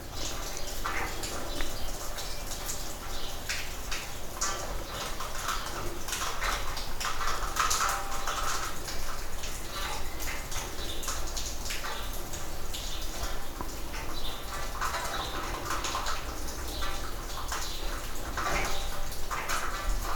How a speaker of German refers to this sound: hört halt einfach auf die Atmosphäre. Es regnet, Vögel zwitschern, vielleicht donnert es ja nochmal.